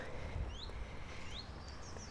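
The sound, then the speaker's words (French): Faint bird chirps and short whistled calls over a steady low rumble outdoors, heard along a walk beside an avenue with car traffic, with no one speaking. “Tu vois, de ce côté-ci c'est chouette parce que tu es ouvert, et de l'autre côté c'est l'avenue avec les bagnoles et tu entends les oiseaux.”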